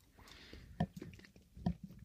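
Wet chewing of a soft gummy bear, with two sharper squelching bites standing out amid quieter smacking mouth sounds; no one speaks.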